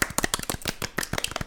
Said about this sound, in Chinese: 哎呀，掌声欢迎！